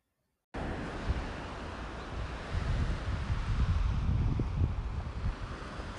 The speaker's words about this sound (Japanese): それではリアルタイムに海の波の音と自然の鳥のさえずりをご一緒にお楽しみください